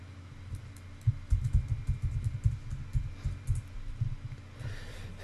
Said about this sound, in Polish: wpisuję hasło, kliknąłem Enter, proszę bardzo.